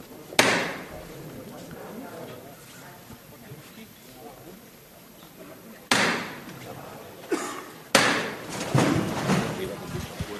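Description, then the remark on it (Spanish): A capataz strikes the hammer knocker of a palio procession float, about a metre and a half from the church door, three times, one early and two close together near the end, each decaying with a reverberant ring over a low murmur of crowd voices. “va a tocar de nuevo el martillo.”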